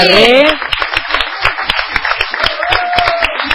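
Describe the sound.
An audience on the Soy Nacional program breaks into dense, steady applause for guest musicians, filling the whole stretch, with a brief voice at the start and a faint cheer rising above the clapping near the end.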